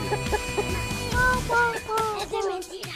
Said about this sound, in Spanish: Gallina. ¿Gallina? Sí. Vamos, las gallinas hoy.